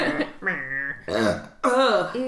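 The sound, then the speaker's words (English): A series of loud, drawn-out belches, three or four long voiced burps in a row with wavering pitch and short gaps between them. “After you started, you started the goddamn episode with the burp.”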